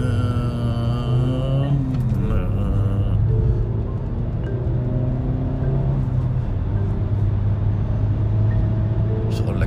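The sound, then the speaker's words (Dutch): A small car with a full tank drives along near the roundabout at Dieren, its engine a steady humming drone whose pitch climbs and then drops as it shifts gears, with a continuous low rumble throughout. “pittig karretje hoor.”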